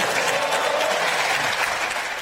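A crowd claps steadily in the plenary chamber of South Korea's National Assembly, a dense, even wash of many hands sustained throughout with no pauses and no voices over it.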